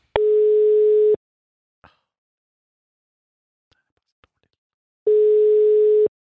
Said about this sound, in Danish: Vi giver ham, vi giver ham øh, sidste chance nu. Ja. Ja. Lad os, lad os prøve at ringe til ham. Og den ringer.